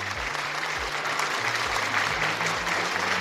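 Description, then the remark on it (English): Steady, dense applause welcoming a guest, a continuous wash of many hands clapping at even loudness, with a low rhythmic hum or tones pulsing underneath throughout. “after the clap, we'll give him to introduce himself.”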